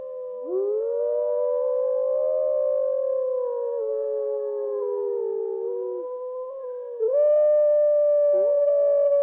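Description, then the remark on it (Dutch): Several wolves howl together in long, sustained, wavering tones that overlap and drift in pitch, rising into a louder, higher chorus near the end, with no voices present. “Elke keer als ik dit geluid hoor, krijg ik kippenvel. Als klein jongetje was ik al gefascineerd door de wolf.”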